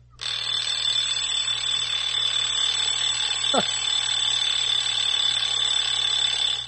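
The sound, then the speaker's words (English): Someone imitates an alarm clock with their voice, holding one shrill, piercing tone without a break for about six seconds, broken only by a quick rising squeak partway through. “Okay, his alarm clock, his alarm clock is I, going”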